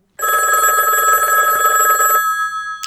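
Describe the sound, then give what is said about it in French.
A single loud telephone ring sounds, a bright buzzing electronic trill lasting about two seconds, then cuts off and fades into a faint hum with a soft click at the end, before an answering machine message plays. “Il paraît qu'on a reçu des messages sur notre répondeur pendant la pause.”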